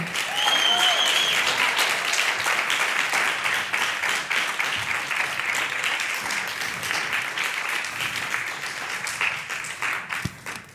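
An audience bursts into sustained applause for a musician, a multi-instrumentalist of a band, a dense, steady wash of many hands clapping that stays loud throughout before thinning slightly toward the end, with a few faint voices mixed in.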